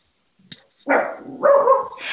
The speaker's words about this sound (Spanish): Esperen, tenemos un perrito que nos vino a visitar. Ah, es, mi, mascota.